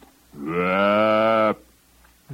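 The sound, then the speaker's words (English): A person imitates a cow mooing with one drawn-out, steady, buzzy note lasting just over a second, fairly loud, followed by quiet. “All these cows are walking around going, mmm, mmm.”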